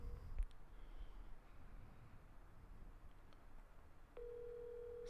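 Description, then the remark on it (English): An outgoing phone call to a father rings over a speakerphone, with a steady electronic tone starting near the end against a low background hum; no one speaks. “So, so, so, call your dad.”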